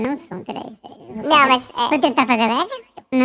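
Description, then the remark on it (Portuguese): Speech run through a digital pitch-shift effect imitating a helium voice, giving a squeaky, chipmunk-like sound. Short, halting phrases spoken fairly loud, with brief pauses between bursts. “Não, não, não mas é porque a, é, a gente tá fazendo esse efeito digitalmente.”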